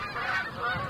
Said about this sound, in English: You, you know, I I'm a deer hunter for some people that might upset them, but I am, and I often have flocks of geese flying over, and it used to really aggravate me. All that you can hear it in the background there.